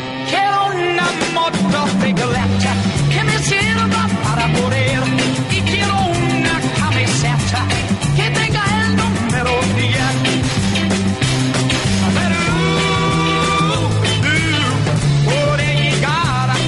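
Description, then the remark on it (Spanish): A loud, full instrumental theme tune for a radio motorcycle segment plays on its own, driven by a steady stepping bass line under bright, busy melodic layers, continuous for roughly seventeen seconds. “Buenas noches, la verdad es que genial, después de oír además la introducción, de la cabecera musical, es genial, es que claro, los viejos paqueos no mueren”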